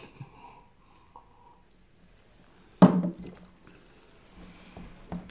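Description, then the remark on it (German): Glasses clink together once in a toast to the old year, a bright knock with a short ring, followed by faint rattling and small movements in otherwise quiet surroundings. “Wir haben gar nicht oh, angestoßen. oh, auf das alte Jahr.”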